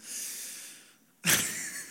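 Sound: imitated snoring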